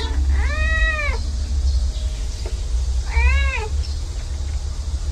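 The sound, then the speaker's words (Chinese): Kittens meow twice, a few seconds apart, each a high, rising-then-falling cry, over a steady low rumble of background noise with no talking. “段段告诉我，在二十三号到二十七号这四天的救援志愿者的工作当中，他参与救援了大概一百个人，还救了四只小狗、五只小猫。”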